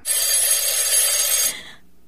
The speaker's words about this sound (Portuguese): Ah, o telefone! Aflita, Sofia corre atender.